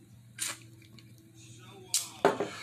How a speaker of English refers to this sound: Uh, and as I take another sip from my uh, lemon shandy. Shandy.